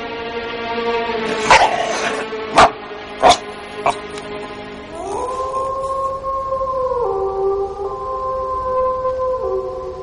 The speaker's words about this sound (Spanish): El aullido proviene del interior del granero. Debe haber un perro ahí dentro.